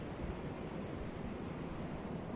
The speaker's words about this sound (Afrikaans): Terwyl jy dryf, Neem 'n oomblik om die geluide van die see te waardeer. Die kalm golwe. Die roep van die seemeeuwe. En die wisselende klank van die branders.